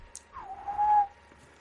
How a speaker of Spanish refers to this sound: habla así, silbando.